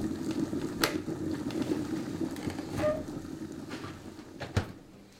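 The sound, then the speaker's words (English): Water boils at a steady low, churning bubble, with a few sharp pops and clicks breaking through now and then. No one speaks. “You can probably see here that I've placed this boiling audio on a different track to the paper reading audio, and they play together.”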